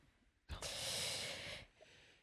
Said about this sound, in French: je voulais faire cette, euh, la respiration.